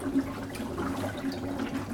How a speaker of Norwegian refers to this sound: Det som kommer ut nå, er Det er CO2, som er et eh, biprodukt av at gjærsoppen da spiser det gjærbare sukkeret i vørteren. Og promper CO2 ut av tanken og lager alkohol også.